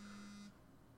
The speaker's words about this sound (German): Das war mein Handy, Entschuldigung. Ich hoffe, das hat man jetzt nicht gehört. Verzeihung.